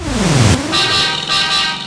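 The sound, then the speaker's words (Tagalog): A low, falling rumble like a passing vehicle gives way to two loud, sustained car horn honks, the second following a brief break. No one speaks. “Painggan ang busina ng katotohanan mula kay Lance Rebollido.”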